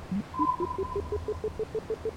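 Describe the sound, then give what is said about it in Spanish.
An audio game compass, activated to search for treasure, emits a rapid, evenly spaced series of short electronic beeps, rising in pitch at first and then holding steady, with a thin sustained tone above and low rumble beneath. “Activamos la brújula.”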